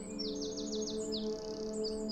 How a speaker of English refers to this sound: The birds are chirping happily as you pass them by.